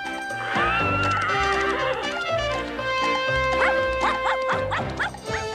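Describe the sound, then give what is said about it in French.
A horse neighs in a few quick, shrill whinnying bursts over loud, twangy western-style music that plays throughout, with no talking. “qu'est-ce qui t'a donné cet indice la musique western, le, cheval C'est ça, ouais, le côté cheval et puis la musique...”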